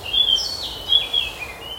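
Thin, high-pitched bird calls trill and sweep in a forest over a soft, steady ambient hiss, with a few brief chirps overlapping. No one is speaking.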